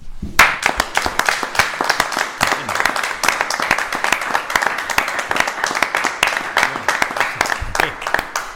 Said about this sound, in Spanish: nosotros nunca hemos hecho lo que vamos a hacer hoy, que es aplaudir a un invitado.